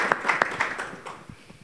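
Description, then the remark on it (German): A short burst of applause from a small audience for an answer, scattered claps quickly thinning out and fading within a couple of seconds, at moderate volume with no one speaking. “Ja klatschbare Antwort.”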